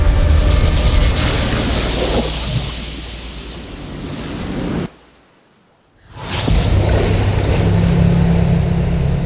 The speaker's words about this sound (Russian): Ты слышишь плеск воды. Ты оборачиваешься. В стену коридора врезаются алые волны.